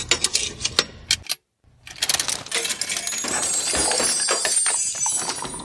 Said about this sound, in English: Ah, here's the uh, here's the coins. They're magic. Here you go. Okay, gonna put that in the machine.